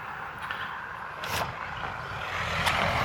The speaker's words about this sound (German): Jetzt warten wir mal, dass, der, dass das Auto da lang fährt.